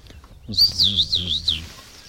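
A bright, wavering twitter from two goldfinches flying over rises for about a second, a rapid run of high, liquid notes, with a faint murmur of voices underneath.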